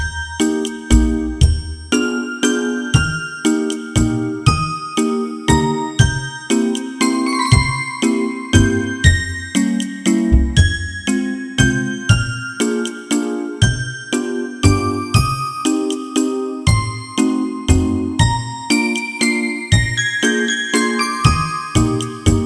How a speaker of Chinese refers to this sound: 那我先跟大家分享一个肖邦夜曲的版本。这个版本啊，是大家在市面上常听见的，或者说走到这个广场呀、商场啊常听见的，也就是一个改编版。